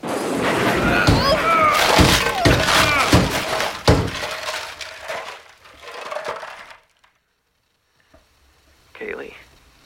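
A car skids off the road in a hailstorm and crashes: a loud, continuous burst of crunching metal, shattering glass and heavy thuds lasting about five seconds, then scattered settling debris, near silence, and one faint brief rustle at the end.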